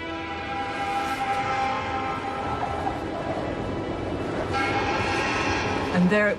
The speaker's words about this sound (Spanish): Y ahí estaba otra vez, el silbato que llamaba al trabajo. Era el primer sonido en 17 meses que no había sido generado por ellos mismos.